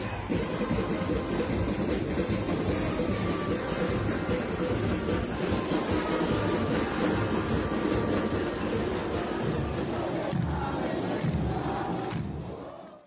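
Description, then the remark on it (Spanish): A dense, continuous roar of a large crowd at a street protest during a national strike, loud and sustained with overlapping shouts, fading out in the last second. “Este sonido que ustedes escuchan son las protestas que, aunque en menor medida, continuaron esta semana.”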